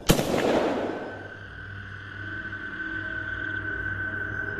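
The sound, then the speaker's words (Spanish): A single sharp, loud gunshot from a firearm at an improvised camp around 3 in the morning cracks at the start and fades into a long echoing tail, leaving a steady high-pitched ringing tone and low hum underneath. “Yo estaba en mi turno de descanso, aproximadamente a las 3 de la mañana, cuando de repente Escuchamos las detonaciones del arma y los gritos de uno de mis muchachos.”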